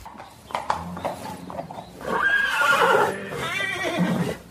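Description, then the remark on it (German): A horse, the talented dressage stallion De Niro, whinnies loudly with a shaky, drawn-out neigh, preceded by a few sharp hoof clip-clops on a hard surface, with no talking. “Darum habe ich auch mit ihm über den talentierten Dressurhengst gesprochen.”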